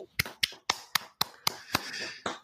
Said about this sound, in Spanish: Aplausos para Marco.